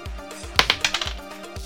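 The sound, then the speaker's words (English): A six-sided die clatters across a hard tabletop in a quick run of sharp clicks that shrink and settle within half a second, over a faint, steady low thump in the background. “Alright, let me roll this dice.”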